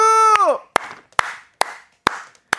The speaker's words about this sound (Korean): 박수!